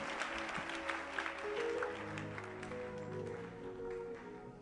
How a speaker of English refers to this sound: Clap your hands for the Lord and sit down, please.